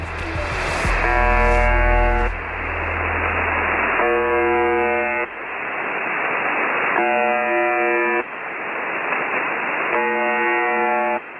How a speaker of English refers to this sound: This is a recording of a shortwave radio station that's commonly known as the buzzer. It's broadcast at 4625 kHz, and for the most part, it plays this buzzing sound continuously. Every now and then, the buzz is interrupted by a voice message.